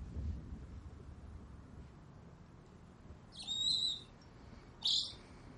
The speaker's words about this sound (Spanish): La lechuza Hedwig está en su jaula frente a Potter.